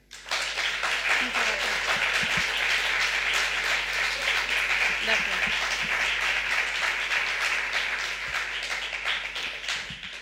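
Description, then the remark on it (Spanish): Sustained audience applause welcoming the writer Elvira Sastre as a guest on El Hombre Luna, a dense crackling wash of many hands clapping steadily at a fairly loud, even level for about ten seconds, with faint voices underneath. “uno tiene la oportunidad de conocer a uno de los valores literarios más interesantes de este país y por eso el aplauso está acorde a la invitada que a continuación nos presentamos, porque está aquí con nosotros Elvira Sastre.”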